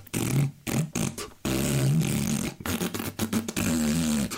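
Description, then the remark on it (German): A voice imitates the rattling aeroplane engine of 5 Uhr Charlie's plane with buzzing, sputtering lip noises, breaking into choppy bursts before settling into a steady, loud drone. “dieses rappelnde Flugzeug da ansieht”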